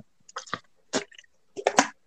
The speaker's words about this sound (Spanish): no sé si me escucha que estoy tomando agua o estoy jodiendo con la tapita así. Sí, se, se, no, se escucha, se escucha. Sí, se escucha.